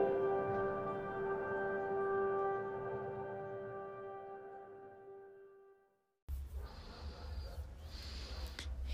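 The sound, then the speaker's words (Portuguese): A sustained, ringing tone slowly fades, then a loud rush of breath follows: a slow, deep inhale and controlled exhale in a relaxation breathing exercise, with no talking. “Vamos nos preparar sem pressa, fazendo uma respiração profunda.”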